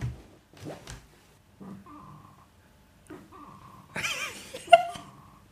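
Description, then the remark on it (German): A person imitates a frog with a few throaty, buzzing croaks spaced a couple of seconds apart, ending in a rougher, noisier burst with a sharp click, moderately loud. “Kannst du einen Frosch machen?”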